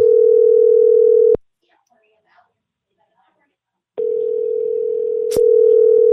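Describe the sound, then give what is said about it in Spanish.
An outgoing phone call ringing unanswered: a steady, loud electronic ringback tone sounds, falls silent for a few seconds, then starts again, with no one picking up or speaking. “No te voy a contestar. No me va a contestar.”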